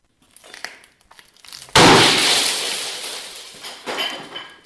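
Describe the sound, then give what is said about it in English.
Glass is smashed in a rage room with a sudden loud crash, bright shattering fragments ringing and tinkling as they scatter, followed by smaller clinks and debris settling, preceded by a few faint knocks. “what breaking stuff does for them”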